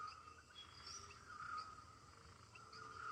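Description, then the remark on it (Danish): A steady Amazon jungle ambience of insects and frogs trilling and buzzing, with occasional higher chirps and calls layered over a continuous, fairly quiet background hum. “jeg ved, at øh, det ord, der ligesom popper op i mit hoved, det er, at vi står midt i en jungle.”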